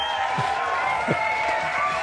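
A large audience applauds and cheers for the studio behind Elden Ring as it wins the 2022 Game of the Year award, in a steady, continuous wash of noise, with a bright sustained tone and crowd voices mixed throughout the short stretch.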